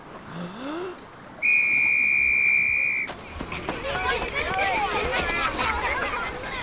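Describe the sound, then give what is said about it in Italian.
A single loud, steady blast of a lifeguard's whistle on a beach, lasting about a second and a half and shrill, followed by lively crowd chatter and voices in the background. “Il bagnino mi ha dato in prestito il suo fischietto.”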